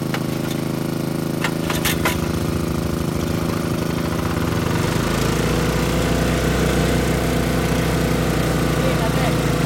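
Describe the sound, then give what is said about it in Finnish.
In the morning at a gold mine in Jäkäläytsi, a gold-mining technician starts high-power water pumps, with about 1200 litres per hour combined capacity, for draining over 200 cubic metres of water: a few sharp clacks and an uneven, chugging engine give way about halfway through to a loud, steady low-pitched motor drone that runs to the end. “Kullankaivuun teknikko käynnistämässä tehopumppuja.”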